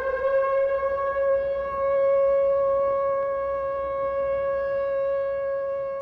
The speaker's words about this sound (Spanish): Eso es, es una, una, sirena original de la Segunda Guerra Mundial. Eso en Alemania, cuando iba a haber un bombardeo en una ciudad, sonaban las sirenas. Esas son las sirenas.